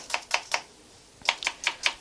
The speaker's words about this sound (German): Eine andere Form sieht aus wie ein normales Streichmesser, vorne abgerundet, aber ist auch super scharf. Nicht schlecht. So, Zwiebel in Würfel.